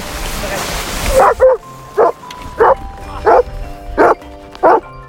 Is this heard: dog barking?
yes